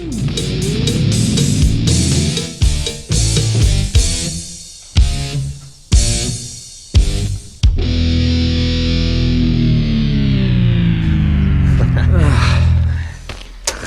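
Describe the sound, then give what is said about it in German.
Loud, heavily distorted rock music played on a reel-to-reel tape recorder with a large reel in an open workshop, with several abrupt stops and restarts in the first half, then running continuously with a dense, saturated, slightly lo-fi tone. “zogen sich die Musik rein. Vor ihnen lief ein Tonbandgerät mit einer großen Spule.”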